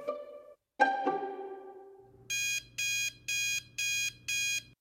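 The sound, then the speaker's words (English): An alarm clock rings loud at 4 a.m.: five evenly spaced electronic bursts in a steady rhythm, following a brief, fading chime-like tone at the start. “My alarm goes off at 4 a.m.”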